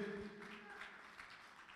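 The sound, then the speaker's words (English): A church audience clapping their hands for the Lord during the time of giving, a dense, steady patter of many overlapping claps, fairly soft, with a faint sustained low tone at the start. “Give the Lord another hand clap for your giving.”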